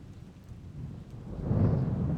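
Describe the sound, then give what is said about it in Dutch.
Steady rain hisses while a deep rumble of thunder swells and rolls in, growing louder toward the end of the short stretch. No voices are present. “Een zware storm raast over het stadje Knaresborough en de nabijgelegen rivier de Nid.”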